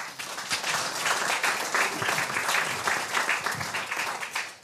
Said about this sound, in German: Nochmal herzlich willkommen und einen satten Applaus für Thorsten Scheimann.